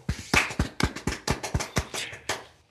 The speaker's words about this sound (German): Also dafür wirklich einen kleinen Applaus hier.